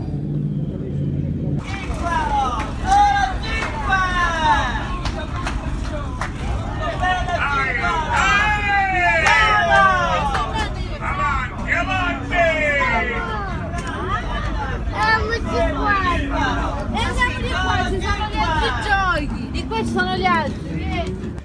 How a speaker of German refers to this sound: Das Stimmenwirrwarr, was du gerade gehört hast, das war der Abendmarkt direkt hinter der alten Burg, der alten Festung des Castellos.